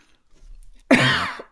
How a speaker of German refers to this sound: Guck mal, ich habe gerade gehustet.